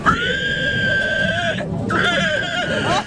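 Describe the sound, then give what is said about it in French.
A person loudly imitates a pig squeal: one long, steady, high-pitched squeal, then after a brief pause a second wavering squeal that rises and breaks at the end. This is the winning entry in an amateur best pig-squeal contest at a village festival in Angle sur l'Anglin. “grand gagnant du concours du meilleur cri de cochon”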